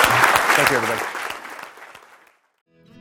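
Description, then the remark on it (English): A room full of people claps loudly for speaker Adam Lashinsky at a Stanford Technology Ventures Program Entrepreneurial Thought Leader lecture, the applause gradually thinning and fading out into silence before a voice briefly starts speaking at the end. “Well, join me in thanking Adam Lashinsky for this fabulous.”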